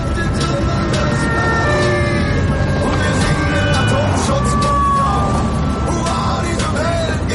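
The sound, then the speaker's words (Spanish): Wailing police sirens rise and fall as several patrol cars rush past, layered over a loud, steady roar of engines and road noise throughout. “Los coches patrulla pasan de largo.”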